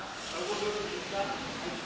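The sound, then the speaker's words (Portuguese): Heavy rain pours down in a steady, dense hiss that fills the whole stretch without letting up, with faint voices barely audible beneath the downpour. “é melhor tu ir mesmo na chuva.”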